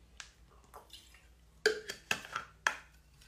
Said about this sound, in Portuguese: Olá! Eu bebi minha água aqui, peraí.